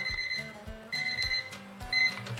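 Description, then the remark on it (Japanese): An electronic timer alarm marking twenty minutes rings in repeated bursts, a bright high-pitched beeping tone over a low pulsing pattern, sounding alone for a couple of seconds with no one talking. “20分経ちました”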